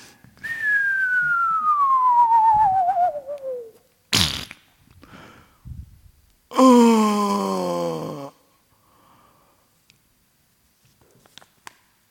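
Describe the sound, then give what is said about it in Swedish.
A referee's whistle blows one loud, sustained blast lasting under two seconds during a ball match, after a hard tackle, coming after a long falling slide-whistle tone and a sharp thud, with no talking. “När Roine hade landat så hörde Uffe en vissling som han inte ville höra.”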